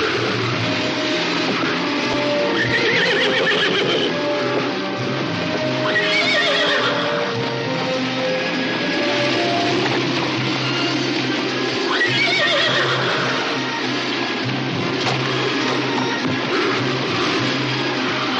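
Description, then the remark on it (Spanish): A horse ridden by a child whinnies loudly a couple of times, rising and falling cries over a steady clatter of hooves clopping along, with a busy, continuous background and no one speaking. “Finalmente, Barner consigue ver al niño montado en un caballo y se dirige hacia él.”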